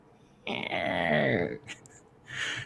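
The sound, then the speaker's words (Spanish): A voice imitates the creaking hinge of a door being opened very slowly by pushing it with an index finger, one drawn-out, strained, wavering creak lasting about a second, followed by a couple of short breathy sounds. “Y abre la maneta muy despacito de la puerta y con el propio dedo índice trata de empujarla, lo cual hace un chirrido muy sonoro. Probablemente le falta aceite a las bisagras de la puerta y se oye un”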